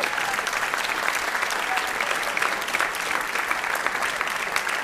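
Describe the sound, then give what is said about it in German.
A live audience claps steadily throughout, a dense, even wash of many hands with crisp, rapid overlapping claps at a consistent loudness and no voices standing out. “Ich will aber keinen Applaus oder so.”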